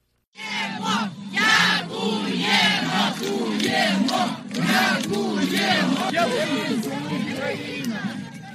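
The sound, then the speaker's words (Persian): A large crowd of townspeople in the port city of Kherson, Ukraine, cheers and shouts as they welcome Ukrainian soldiers in November, a dense, continuous roar of many voices with rising whoops and chants, loud for the whole stretch. “تصویر ویدیویی استقبال سربازان اوکراینی توسط مردم شهر را دیدند”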